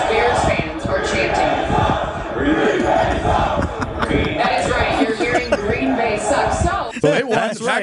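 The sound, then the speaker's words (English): A large crowd of Chicago Bears fans at a Thursday night game chants "Green Bay sucks" loudly and rhythmically in unison, a dense roar of many voices that sustains throughout before breaking into scattered shouts at the end. “Bears fans uh, keeping the rivalry alive, even with the Packers not having the best of year. And maybe there's some facts into that that chant, you know.”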